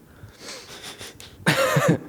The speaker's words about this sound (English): I don't know why I put the microphone to my mouth to clear my throat then.